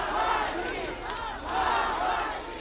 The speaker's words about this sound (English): By now, the whole street was watching and chanting the name of Vladimir Putin's fiercest opponent, Navalny. We won't give in, they cried.